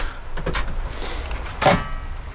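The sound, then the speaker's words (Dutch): A van door is opened for an inspection, with a couple of sharp mechanical clunks and a brief scraping slide over a low, steady rumble; no one speaks. “Nou, de auto gaat open.”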